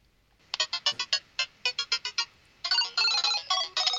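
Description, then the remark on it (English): A bright, beepy jingle from the arcade video game Donkey Kong 3: a quick run of about a dozen staccato electronic notes, then louder, sustained buzzy chords to the end. No one speaks. “Donkey Kong 3. Easy.”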